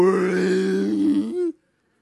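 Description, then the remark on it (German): A deep, sustained rumbling voice drones for about a second and a half, imitating a whale-like call with a low wavering tone, fairly loud, then stops abruptly. “Klingt so ein bisschen wie walisch.”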